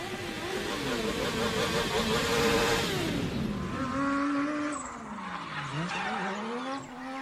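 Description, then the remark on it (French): Loud, sustained tire screeching as a car drifts for fun inside an apartment, with a revving engine whose pitch swoops up and down across several seconds of continuous skidding. No one speaks. “Ça, c'est le bruit de la voiture avec laquelle on s'amuse à faire des drifts dans l'appartement quand il n'y a plus d'essence dans la moto et qu'on ne peut plus aller en mettre puisqu'on n'a pas le droit de sortir de chez soi et qu'on s'emmerde trop.”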